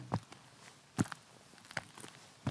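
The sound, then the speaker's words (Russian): Slow, evenly spaced footsteps, four or five hard thuds about a second apart, quiet and slightly hollow-sounding, echoing as someone climbs stone stairs in the dark. No one speaks. “Только эхо моих шагов по лестнице в темноте.”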